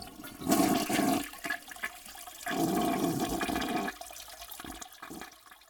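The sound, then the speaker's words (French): A toilet flushes with a loud rushing gurgle of water, surging in two strong bursts before trailing off into a quieter refill trickle, with no one talking. “La toilette qui floche, tu sais.”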